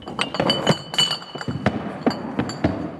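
Prop Prosecco bottles clink and knock against each other repeatedly as they are handled and set down in the Marstalltheater for the 100th performance of Fassbinder's play The Bitter Tears of Petra von Kant, a busy irregular series of bright clinks with some duller thuds.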